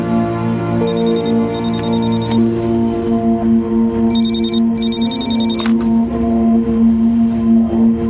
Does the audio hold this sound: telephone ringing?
yes